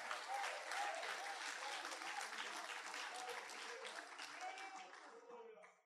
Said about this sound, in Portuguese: Pode aplaudir o Senhor. Pode aplaudir a Jesus.